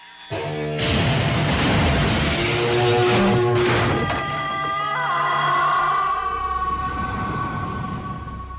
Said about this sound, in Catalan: La distorsió de l'instrument fa patar els vidres de les finestres i propulsa el progenitor cap a l'espai, rebentant el sostre de la casa.